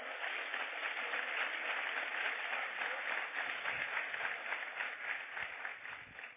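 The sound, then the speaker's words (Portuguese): An audience applauds steadily for several seconds, a dense wash of many hands clapping at an even, sustained level with no voices standing out, tapering slightly at the end. “Aplauda ele.”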